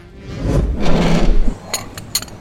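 An extra chair is pulled up to a table outside, dragging across the floor in a low, rumbling scrape lasting over a second, then settling with a few quick, light wooden knocks.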